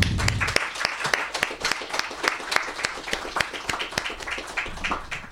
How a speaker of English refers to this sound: More applause